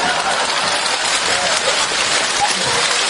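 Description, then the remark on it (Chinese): Steady, dense clapping to encourage someone going to the toilet fills the whole stretch, a loud, even crackle of many hands with no pauses or talking over it. “上厕所有掌声，江泽民都没这待遇。”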